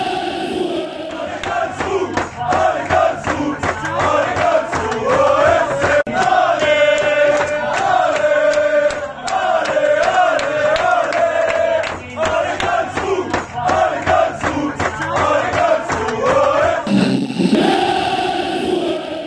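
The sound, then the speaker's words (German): A loud stadium crowd roars and cheers at the final whistle of KSC's DFB-Pokal win that took the club into the quarterfinals, a dense sustained wall of shouting and chanting voices with rhythmic claps, swelling and dipping briefly near the end. “Ja, so klang es gestern beim Abpfiff des sensationellen Pokalerfolgs des KSC”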